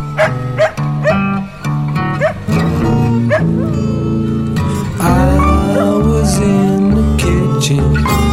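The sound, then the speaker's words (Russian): A hound dog barks and howls in wavering, drawn-out cries over a slow blues backing of piano and guitar, the dog loud, mixed right in with the music. “Теперь же оставляю вас со старым гончим блюзовым псом”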